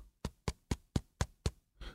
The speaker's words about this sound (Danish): det er lyden af min venstre hånd, der klapper på en Karl Johan. Og den lyd vil man gerne have, og den kan være, være sådan endnu sådan, øh, hvad kan man sige, hårdere.